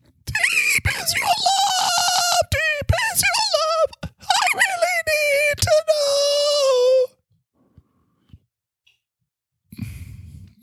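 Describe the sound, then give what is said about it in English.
A man sings on air in a strained, high-pitched falsetto, loud, with wavering sustained notes for about seven seconds before stopping abruptly, followed by near silence and a brief muffled noise. “It's not deep at all. It's way up there high.”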